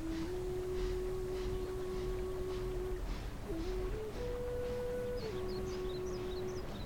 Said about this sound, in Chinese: 伴随着几声悠长的汽笛声，火车开始一点一点，慢慢地向前移动。